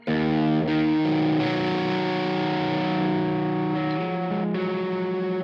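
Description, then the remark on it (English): Overdriven electric guitar chords ring out loud through an amp, sustained and changing every second or so, with a thick distorted tone and no voices. The chords are played to test the distortion or overdrive sound. “And one of the ways I like to look at a good distortion or overdrive sound is by playing chords.”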